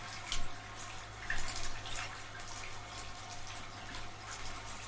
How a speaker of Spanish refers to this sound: En la cocina enjabona el vaso con un estropajo de plástico.